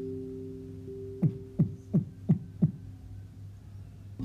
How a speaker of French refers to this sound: Puis soudain, quelqu'un derrière la porte s'est mis à cogner.